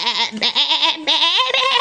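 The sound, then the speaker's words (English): Sheep bleating in a long, quavering run, two wavering calls back to back with a tremulous, nasal pitch, loud and alone with no talking. “Some sheep came.”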